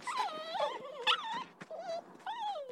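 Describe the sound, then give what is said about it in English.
Several wolves howl together in overlapping, wavering cries that rise and fall in pitch, fairly loud, with no one speaking over them. “Or you could just toss him in the woods and let the wolves carry him off.”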